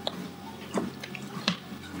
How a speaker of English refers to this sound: Let me have a bit of water